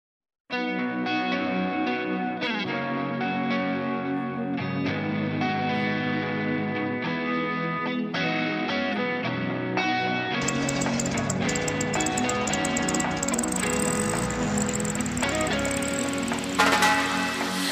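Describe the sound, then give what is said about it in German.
An upbeat schlager pop intro plays, instrumental with no vocals: a steady, melodic synth-and-band groove that swells into a fuller, brighter arrangement with crashing cymbals about two-thirds through. “Nun hören Sie den Schlager”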